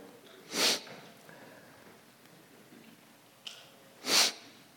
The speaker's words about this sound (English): Excuse the sniffles.